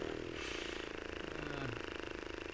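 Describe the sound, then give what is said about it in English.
A low, rumbling fart against a seat, a sputtering buzz that carries on for a couple of seconds before trailing off with a brief deeper tone. It is fairly quiet, with no talking. “Can you guys hear me farting on YouTube?”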